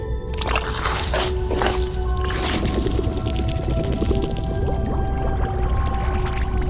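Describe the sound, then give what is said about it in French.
A continuous muffled gush of liquid released by a scientist from the Triton submarine at nearly 600 metres deep in the ocean, bubbling and swirling for several seconds over a steady low mechanical hum, at an even, fairly loud level with no voices. “Arrivé à près de 600 mètres de profondeur, le scientifique largue son étonnant liquide.”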